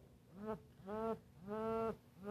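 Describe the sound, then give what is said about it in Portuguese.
A mobile phone buzzes on vibrate in a steady pattern of four low, droning pulses, each lasting about half a second with short gaps, clear with no talking. “Esse é meu celular? Não, é o meu.”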